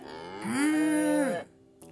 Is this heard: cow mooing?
yes